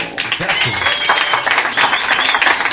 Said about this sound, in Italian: Grande applauso, un grande applauso.